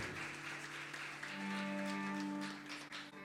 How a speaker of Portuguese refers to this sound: Isso, vamos receber. A igreja pode aplaudir o Senhor. Aleluia.